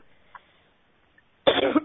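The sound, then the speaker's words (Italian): A single loud cough bursts out near the end after a stretch of near silence, broken only by a couple of faint small noises. “Oddio, non ho coronavirus, eh, però quando parlo in questo modo, così con la voce che l'attendo, poi dopo tossisco.”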